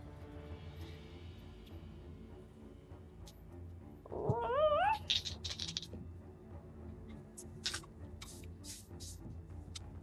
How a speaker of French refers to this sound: C'est un petit chat.